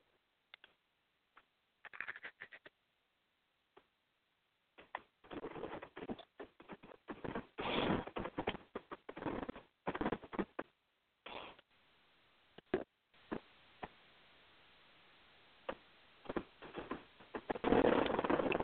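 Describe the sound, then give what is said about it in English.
Crunching on a wafer cookie: a few sharp bites, then a long run of irregular, crisp chewing crunches, loud, with no talking. “to say it's a lot crunchier than American wafer cookies.”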